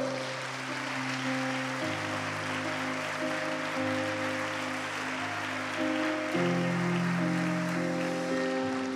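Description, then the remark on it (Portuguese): A church audience applauds the Lord steadily for several seconds, a dense wash of many hands clapping, while sustained keyboard chords hold and shift underneath. No one speaks. “Poderíamos oferecer um aplauso ao Senhor?”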